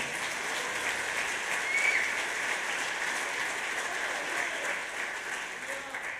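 An audience bursts into sustained applause for Jesus, a dense, steady wash of clapping hands that holds at an even level for several seconds, swelling slightly midway before easing off at the end.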